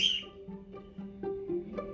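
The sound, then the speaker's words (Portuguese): A parrot squawks and chatters, starting with a sharp high screech and followed by a few shorter raspy calls in an uneven rhythm over about two seconds. “O papagaio.”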